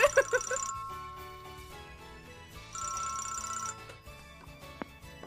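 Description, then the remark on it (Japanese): A telephone for the Franchise Town candidacy call-in line rings in two electronic bursts of rapid trilling tones, the first near the start and the second a couple of seconds later, with no talking over them. “それでは、えー、受話器を置きます。はい、ありがとうございます。すぐなる。”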